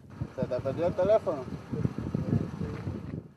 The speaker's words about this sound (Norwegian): Det blåser på havna i Havanna. Vinden overdøver samtalene, for her er det mange cubanere som har litt av en historie å snakke med hverandre om disse dagene.